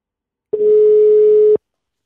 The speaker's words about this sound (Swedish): Så vi ringer väl? Ja, ring. Kolla. Ring, ring Helsingborg. Vi ringer Helsingborg.